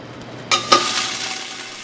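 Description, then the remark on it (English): Crab shells are thrown into a hot stock pot with oil in the bottom to toast them for stock: two quick clattering drops, then a loud, steady sizzle of frying follows, fading slightly as it continues. No one speaks. “I'm going to put them in a hot pot with some oil in the bottom and toast the shells up, and then I'll add liquid to make uh, stock.”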